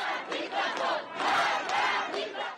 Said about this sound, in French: une partie de la population est dans la rue pour rendre hommage à Macha Amini et protester contre la police des mœurs